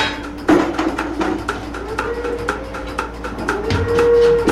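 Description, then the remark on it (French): A milking machine pulsator milking a cow pulses in a steady rhythm of sharp, repeated clicks, roughly three per second, over a continuous mechanical hum with a faint rising whine; through a membrane, the pulsation massages the cow's teats. “Ce qu'on entend, c'est la pulsation. C'est ce qui permet par un jeu de membrane de masser le crayon.”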